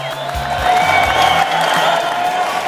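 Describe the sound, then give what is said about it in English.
A crowd bursts into a steady round of applause for the Ducks, dense clapping at full volume, with scattered cheers and whoops rising over it for the whole stretch. “And how about a big round of applause, everybody, for the Ducks?”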